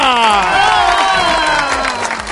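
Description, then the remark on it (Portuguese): An audience on a Brazilian show applauds and cheers as a new singing contestant is welcomed, a loud sustained whoop sliding slowly downward in pitch over steady, dense clapping for a couple of seconds. “Vem aí ele, receba com aplausos,”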